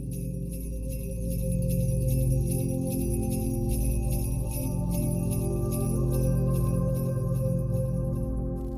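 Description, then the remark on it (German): Faint bells of a sleigh jingle in a steady, rhythmic pattern in clear, cold air, sounding far off, layered over a soft, sustained low drone that continues throughout. “Das entfernte Glöckchen eines Schlittens.”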